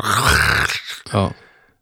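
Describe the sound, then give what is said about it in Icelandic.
A voice imitates an excavator scraping on stone: a long, loud, gravelly groan, a brief pause, then a shorter rasping burst that fades out. “já, og svo þessi, þessi hljóð þegar það bara verið ítekur á steinu”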